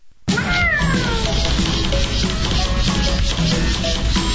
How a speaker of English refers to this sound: You hear that? Ain't nothing sadder than an outdoor cat thinks he's an indoor cat.